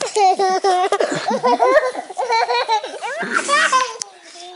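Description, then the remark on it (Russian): A young child runs off, chattering and giggling in high, bouncy bursts for several seconds in the background, lively, with squealy rising and falling tones. “Как ты, вот там на фоне убегающий да. ребенок, это обязательно нужно оставить, да.”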